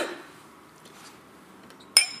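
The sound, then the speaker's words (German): A single bright clink of glasses touching in a toast, ringing briefly with a high, clear tone after a quiet stretch of faint room ambience. “Prost.”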